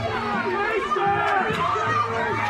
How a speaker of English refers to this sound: fans yeah, are yelling for a face mask. And, and I'm not going to listen. I, I agree with them on that one. I agree with them.